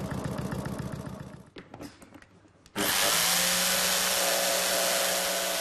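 A powered foam saw buzzes, pauses briefly with a few rattling knocks, then starts up again as a loud, steady, harsh whirring roar while a 17-year-old cuts relatively soft upholstery foam to size for the back cushion of a seat. No one speaks.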